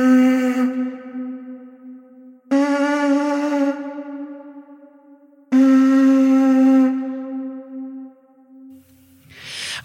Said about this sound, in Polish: Tymczasem ta francuska muszla sprzed 15 tysięcy lat była rzeczywiście instrumentem muzycznym. Słuchajcie, przeżyjmy to jeszcze raz. Y, dźwięki, jeszcze zobaczcie z jakim pięknym pogłosem muzyki jaskiniowej.